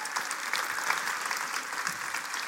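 An audience claps steadily, a dense wash of many hands at an even level throughout, with no voices rising above it.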